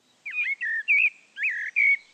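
Three blackbirds chirping in spring sunshine in a quick run of about five bright, warbling calls, clear, with brief gaps between them and no voices.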